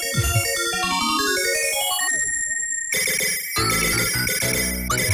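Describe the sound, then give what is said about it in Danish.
Frantic retro video game music warns of rising water: fast, busy electronic melodies race in quick stepping notes, loud and continuous for the whole stretch, with no voices. “Så blev man mega stresset af lyden, Der er vandet steg.”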